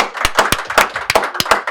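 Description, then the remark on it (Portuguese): A burst of recorded applause sound effect played at the press of a button: many overlapping hand claps in a dense, irregular patter, bright and fairly loud, with no voices over it. “Nossa, cara, ele apertou um botão aí e sai essa sonoplastia, né?”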